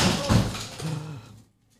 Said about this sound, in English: Well, there you go. But the, yeah, that's granddad. the spirit of granddad's come and knocked the beers down.